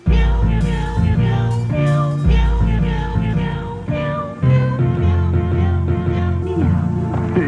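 Cat meows set to music: meowing sounds are woven through a loud, continuous track with deep bass and sustained tones, rising and falling in pitch throughout.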